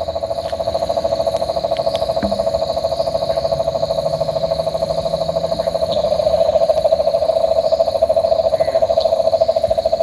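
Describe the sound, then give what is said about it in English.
A cane toad gives a loud, sustained trill, a steady rapid purring note that drones on without a break, with faint insect and night sounds in the background. “Loud, hey. And that's, uh, we believe that's cane toad, is it?”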